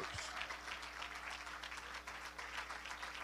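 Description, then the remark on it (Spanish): A church audience applauds the Lord steadily, a dense wash of many hands clapping at an even level for a few seconds, with a low steady hum underneath and no voices standing out. “Dale ese aplauso al Señor, aleluya.”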